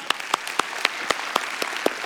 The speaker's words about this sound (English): Next one, let's see if you can clap. Anybody can clap?